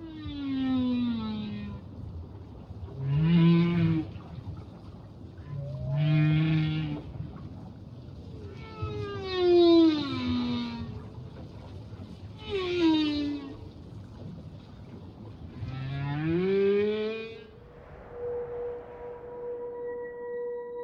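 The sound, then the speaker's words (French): A male whale's deep, powerful, hypnotic courtship song, which lasts several hours and carries up to several hundred kilometres: a series of six long moaning and rising calls with rich harmonics, repeating every few seconds, then a faint sustained tone at the end. “Le mâle propage ainsi son chant de séduction jusqu'à plusieurs centaines de kilomètres.”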